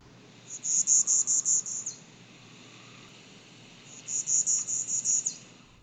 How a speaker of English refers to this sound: I'm recording right now from First Landing State Park. Um, I'm in the midst of the swamp right now. I mean, there's like cypress trees, water, you may have heard that frog right there.